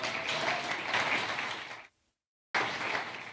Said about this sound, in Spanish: No nomás eso, en tiempo de Navidad regalamos 7 mil juguetes. Dele un aplauso fuerte para eso.